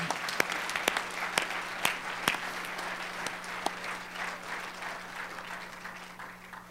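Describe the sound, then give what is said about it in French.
An audience applauds the Lord and his work in their lives, dense clapping from many hands with a few sharper claps standing out early on, sustained at moderate volume throughout and accompanied by a low steady hum. “Est-ce qu'on peut acclamer le Seigneur, son œuvre dans nos vies?”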